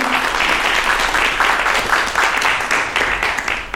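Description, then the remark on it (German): An audience applauds the sporty walkers steadily, many hands clapping in a dense, continuous patter at a fairly loud level for several seconds, with no speech over it. “Vielleicht einen kleinen Applaus für die sportlichen Geher.”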